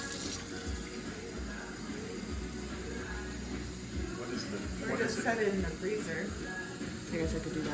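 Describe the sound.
A tap runs steadily throughout, a continuous gush of cold water with a broad hiss, while people talk faintly in the background, their voices rising briefly midway.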